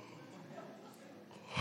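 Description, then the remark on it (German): A person voices an exaggerated, breathy yawn, a drawn-out airy exhale lasting over a second that swells louder right at the end, with no other speech. “sondern er steht vielleicht auf, heiliges Gähnen, so,”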